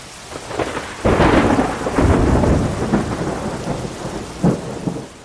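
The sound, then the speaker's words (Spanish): A thunderstorm at sea on 13 February, the storm that separated two caravels, the Niña and the Pinta, with loud, rolling thunder rumbling over steady heavy rain, the booms swelling after the first second and fading in and out without any voices. “El 13 de febrero una tormenta pavorosa separó a los dos barcos.”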